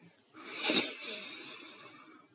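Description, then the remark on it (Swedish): A deep, steady breath drawn in through the nose during a relaxation breathing exercise, an airy hiss swelling quickly and then holding for nearly two seconds before fading, with no talking. “En gång till, andas in.”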